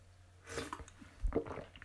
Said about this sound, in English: Just a moment, slurp.